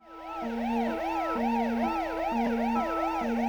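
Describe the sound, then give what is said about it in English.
Emergency vehicle sirens in a song blare continuously, a rapid rising-and-falling yelp layered over a steady two-tone high-low alternation, leading into the final verse, with no voices. “And the reappearance of those sirens usher us into the final verse.”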